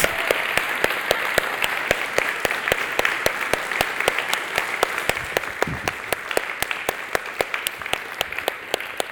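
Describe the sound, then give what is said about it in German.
An audience applauds its pastors steadily, many hands clapping in a dense, sustained wash with sharper individual claps standing out throughout; no one speaks over it. “Lasst uns doch unseren Pastoren einen großen Applaus geben, einfach Danke sagen, dass wir sie haben, okay?”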